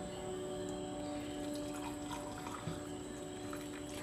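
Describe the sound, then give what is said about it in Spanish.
Water is poured to make tea in a steady, continuous trickle over a low constant hum, with a few small splashy drips mixed in and no one talking. “si escuchan los ruiditos es que me voy a preparar un tecito porque para tener esta conversación necesito tener algo que humecte y calientito bajándome por mi garganta.”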